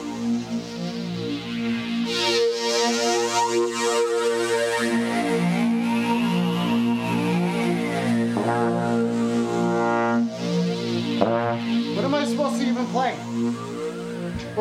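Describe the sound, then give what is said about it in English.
A trombone, played by someone wearing a mask, plays long, buzzy sustained notes, with a slow sliding bend in pitch partway through and a few shorter, wobbly blasts near the end. “I think I can play trombone in this mask.”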